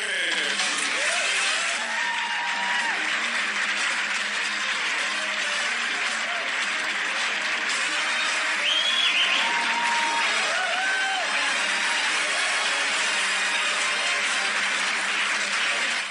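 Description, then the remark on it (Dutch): The opening of the Dutch TV show De Wereld Draait Door, played from a phone: steady studio-audience applause and crowd noise, thin and tinny through the small phone speaker, continuous for the whole stretch with faint voices underneath. “Ik weet, die intro had er niet bij gehoeven.”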